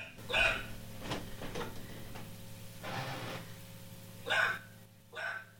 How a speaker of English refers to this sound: What is Penelope saying? Ghost? ghost? Is that dog for ghost? Tell us. Yeah, that is an agitated dog.